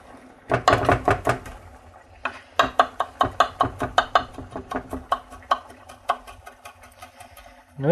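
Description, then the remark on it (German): A knife chops rapidly on a cutting board, a steady run of sharp, evenly spaced taps with a brief pause after the first burst, dicing onions. “Dann die Zwiebeln.”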